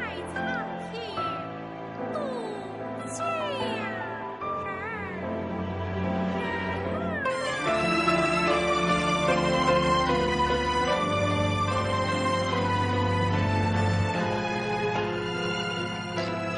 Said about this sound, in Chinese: 而且加入了大家现在听到的这个原创的青衣唱段。